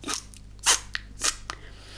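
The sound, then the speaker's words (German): A voice imitates people in rubber boots squelching through mud: a handful of wet, smacking mouth sounds in an uneven rhythm, loudest in the middle, with no talking. “Wir sind auch wach geworden von diesem Geräusch, dass Leute mit Gummistiefeln da durch den Schlamm neben unseren Köpfen quasi gewartet sind.”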